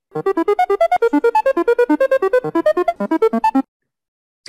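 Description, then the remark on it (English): A rapid run of short, bright electronic tones from a randomizer picking a topic hops up and down in pitch for about three seconds, then stops abruptly into silence. No voices. “pick the old uh, randomizer here for Memory Jogger and uh, see what topic we get”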